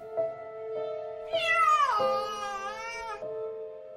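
A cat lets out one long, drawn-out meow that slides downward in pitch and lasts nearly two seconds, loud, over a steady low humming tone in the background.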